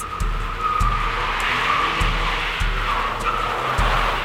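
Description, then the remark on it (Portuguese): A car skids loudly to a stop with a sustained tire squeal over a rumbling engine, while dull low thumps repeat every second or so as its wheels bump up onto the sidewalk curb. “A máquina parou subindo na calçada, barulho da porta abrindo, a fumaça escapou lá de dentro junto com uma gargalhada assombrada.”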